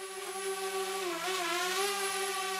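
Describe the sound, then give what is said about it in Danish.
A fairly large drone flying a couple of houses away gives a steady, high-pitched electric whine throughout, its buzzing tone dipping slightly in pitch midway before leveling out again. No one speaks. “Nå, det skulle sgu da en drone.”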